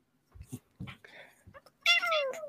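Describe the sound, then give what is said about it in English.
A female cat lets out one clear, drawn-out meow that slides downward in pitch, fairly loud, preceded by a few soft, brief murmurs and rustles. “Do you hear her?”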